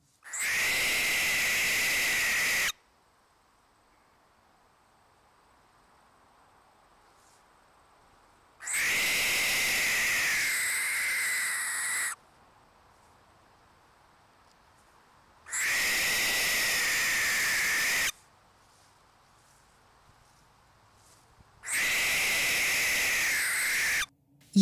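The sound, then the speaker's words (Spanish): Four long, harsh hissing screeches from an owl that feels threatened, each lasting a few seconds and separated by pauses of silence, loud with a rasping, breathy texture. “mientras que el horrible chillido que escucharon los testigos realmente era el sonido que hace la lechuza cuando se siente amenazada, el cual suena de la siguiente manera.”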